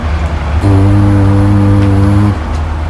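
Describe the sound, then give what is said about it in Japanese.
A voice hums a single low, steady whistle-like tone lasting about a second and a half, loud, imitating the deep steam whistle a large ship sounds as it leaves port, over faint background noise. “実は、この汽笛の音や長さ普段するディープキスの長さや回数を表してるんだとか”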